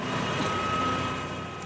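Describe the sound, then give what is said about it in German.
A tractor engine drones steadily as it passes in the arena at a horse-riding competition, a continuous low rumble with a thin, constant whine riding on top, holding an even loudness with no voices over it. “Jetzt geht es ja noch, warten wir eben den Trecker ab.”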